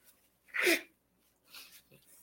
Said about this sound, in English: Excuse me as I just blow my nose again.